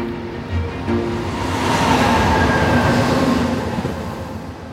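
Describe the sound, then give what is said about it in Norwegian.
A delayed passenger train driven at full speed to make up time rumbles steadily along the rails, a broad continuous roar with faint tonal hums and a swelling wash of noise, with no voices. “Men helt framme i toget, hos lokføreren, er ikke stemningen like idyllisk.”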